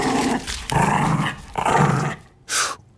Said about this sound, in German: Und wenn ich mich bedroht fühle, kann ich echt krass knurren.